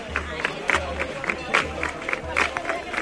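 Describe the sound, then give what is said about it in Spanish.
A crowd of romeros and pilgrims applauding to the music of Huelva, with scattered sharp claps over a steady murmur of voices and a low, pulsing rumble repeating underneath at a regular beat. “Los romeros y peregrinos, todos aún aplaudiendo a los sones de Huelva”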